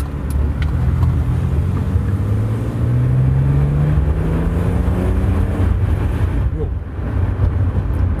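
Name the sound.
car engine accelerating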